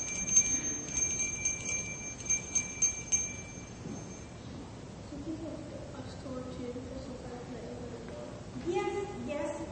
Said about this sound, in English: Sometimes a bell rings when you open a door.